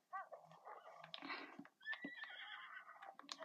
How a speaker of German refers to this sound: Das Pferd ist überlaut.